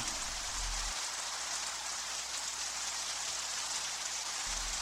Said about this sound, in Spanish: Tú estás a salvo escuchando simplemente este sonido natural de la lluvia.